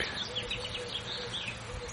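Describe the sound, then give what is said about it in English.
Several birds chirp and trill over a steady outdoor hiss, their quick, high calls overlapping in a soft, continuous morning chorus with no one talking, heard from a porch at about nine o'clock on a Sunday morning. “Cup of coffee, listening to the bird song, and just feeling incredibly blessed, you know.”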